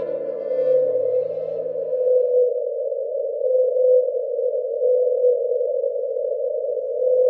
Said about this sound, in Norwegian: Dette er sangen til 52 Blue, også kjent som Den ensomme hval. Er det en gutt? Er det en jente? Ingen vet, for ingen har noen gang sett denne skapningen, man har bare hørt den.